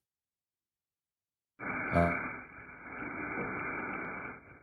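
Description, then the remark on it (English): After a moment of silence, a 360-degree barbell brush by Hybrid Athletics scrubs a barbell in a steady, continuous rasping hiss that sounds muffled and band-limited. A voice briefly murmurs near the start of the scrubbing. “that's the sound of a 360 degree barbell brush by Hybrid Athletics.”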